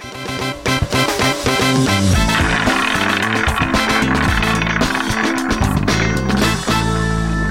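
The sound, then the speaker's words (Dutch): A roulette wheel spins with a loud, continuous rolling rattle and dense clicking that runs for several seconds, layered with bright ringing tones and no voices. “hey, eh, laten wij naar een nieuwe rubriek gaan. Namelijk uh, roulette.”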